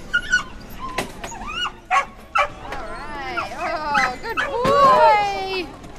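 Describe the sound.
Several rescued dogs, brought by van from shelters including one in Pickens County, South Carolina, bark and yip in quick bursts, mixed with high whimpers and whines, over a busy background of people talking and crowd noise at the National Geographic Museum in Northwest DC during a pet adoption event.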